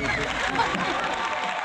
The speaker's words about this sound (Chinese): 来，掌声欢迎。